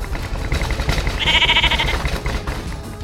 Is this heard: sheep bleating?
yes